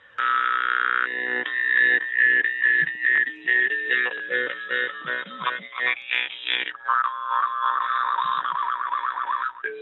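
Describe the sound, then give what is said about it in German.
A jaw harp twangs continuously in a lively improvised pattern, its buzzing drone shifting through wah-like overtones and quick rhythmic plucks, fairly loud with no voice. “Ich improvisiere jetzt einfach mal ohne Stimme, also wirklich nur mit dem Klang der Maultrommel dahin.”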